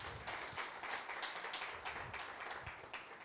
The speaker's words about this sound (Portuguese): Dá um aplauso aí, gente, ao Senhor, coisa linda.